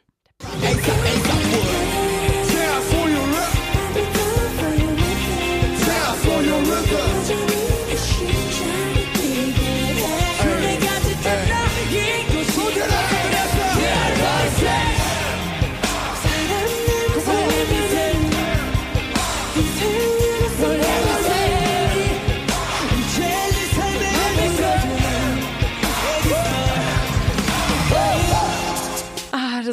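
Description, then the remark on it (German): The pre-chorus of a hip-hop song plays loudly and steadily throughout, with group vocals shouting over a thick, pounding beat that stays at an even, driving intensity for the full half minute. “Liebe Vor allem liebe ich den Pre-Chorus und den hören wir uns jetzt mal kurz ja. an.”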